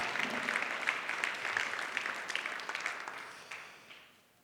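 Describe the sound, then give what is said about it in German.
An audience applauds in thanks to Weiland Mons, who are absent, for the new Jahreslosung song, with dense, steady clapping that holds at a fairly even level for several seconds before tapering off and fading out near the end. “Ihr dürft quasi in Abwesenheit halt klatschen und sie gucken sich im Stream nach.”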